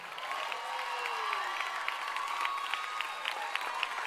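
A church audience claps steadily during a sermon, the dense patter of many hands blending with scattered cheers and whoops, including a rising and falling shout near the start, holding at an even level throughout.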